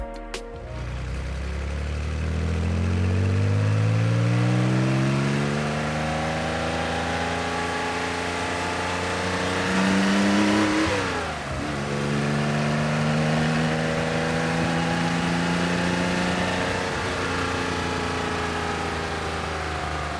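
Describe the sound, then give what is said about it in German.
A Porsche 911 ST sports car engine revs loudly, its pitch climbing steadily, dipping briefly as it shifts gear midway, then rising again. The lowered car has wider fenders, a wider track and weight cut to 960 kg. No voices are heard. “Auch die Spur war breiter, tiefgelegt wurde der Wagen natürlich auch noch und das alles zusammen ergab dann den 911 ST.”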